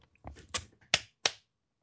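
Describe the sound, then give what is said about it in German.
Slow, sarcastic-sounding clapping in the background of a WWE Tag Team Titles rematch between the Primetime Players and New Day: about four sharp, evenly spaced claps, each a crisp slap that fades quickly, fairly quiet, with no voices alongside. “Ja, das ist so sarkastisches Klatschen da im Hintergrund.”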